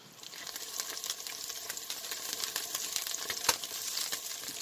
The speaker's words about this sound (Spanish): Para arrancar colocamos una olla grande con mantequilla y un picado de cebolla larga y lo dejamos sofreír un rato.